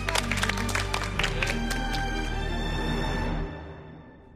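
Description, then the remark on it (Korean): A studio audience on a JTBC programme applauds in thanks to a lecturer after a lecture, in a dense, crackling burst of many hands, with a steady musical tone underneath, then the clapping thins and fades out toward the end. “감사의 박수를 전해드립니다.”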